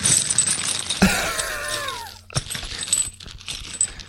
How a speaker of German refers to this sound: Das ist ein, ein Märklin-Baukasten. Gefüllt mit, mit Schrauben und Gewichtsscheiben.